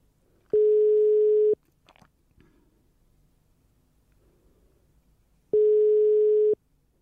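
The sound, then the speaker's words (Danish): Two steady, fairly loud ringback tones from an outgoing phone call to the caller's mother, each about a second long and several seconds apart, with faint clicks and rustling in the quiet gap between them. “Mor, øh, jeg ringer lige, fordi at øh, jeg har fået en mail fra Peter Birkelund på Rigsarkivet.”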